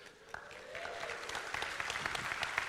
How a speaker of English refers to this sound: Oh, that's a smattering of applause, right? 30 years, I want you to think about that, right?